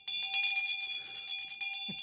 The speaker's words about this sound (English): What will you be using for a buzzer sound today? I have a Tibetan prayer bell.